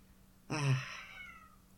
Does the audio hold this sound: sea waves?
no